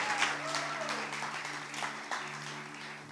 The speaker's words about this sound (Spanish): Le da un fuerte aplauso a la palabra de Dios en el día de hoy.